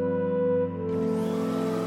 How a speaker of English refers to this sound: The revving of a vacuum startled me, and I hurriedly put my phone away